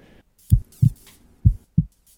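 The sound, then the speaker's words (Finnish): A heartbeat sound effect: two deep lub-dub beats, each a pair of low, muffled thumps, repeating at a steady, unhurried pace with nothing else around them. “Sykeväli on aika, joka kuluu kahden sydämenlyönnin välillä.”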